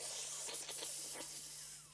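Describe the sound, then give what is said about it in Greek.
A voice imitates another person slurping loudly at the table: a continuous airy, hissing suck broken by several quick wet bursts, lasting about two seconds, with a faint steady hum underneath and no speech. “Ή όταν άλλος ρουφάει και κάνει...”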